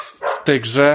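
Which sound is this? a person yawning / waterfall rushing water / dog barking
dog barking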